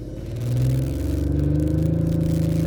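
A sports car's dual exhaust revs up loud, the deep engine note climbing steadily in pitch with a rumbling, slightly rattly growl and no talking.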